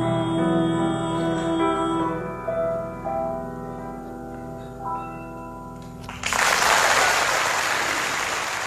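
A sustained harmonic tone from the final held note of a Yiddish song fades out, then a burst of loud, dense audience applause at a live show by Galei Tzahal and the Habima Theatre breaks in and continues steadily to the end.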